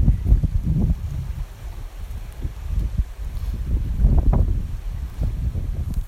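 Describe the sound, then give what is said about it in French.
Gusty wind from the north coast roars in a low, rumbling rush, buffeting steadily and swelling into stronger blasts near the start and again past the midpoint; no one speaks. “C'était une autre révélation mystique et euh, une bourrasque de vent en provenance de la côte nord.”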